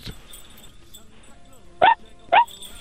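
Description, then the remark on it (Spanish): A person imitates a female dog with two short, sharp barks about half a second apart, fairly loud, after a quiet stretch with faint background noise. “¿Puedes hacer el sonido de, de una perrita?”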